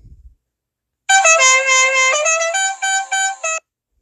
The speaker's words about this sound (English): Believe it or not, I'm trying to prolong this episode just a little bit because I did mention the swap meet, so I was looking for the swap meet sound. And here we go.